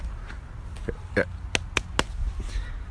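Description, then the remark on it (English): A handful of sharp, hollow knocks on the wood of a tree, four or five raps in an uneven rhythm, fairly loud over a low rumbling outdoor background. “Let me go ahead and knock on some wood.”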